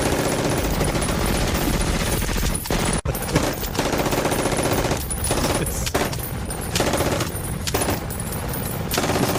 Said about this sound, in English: unloading the machine gun right into the back of the car.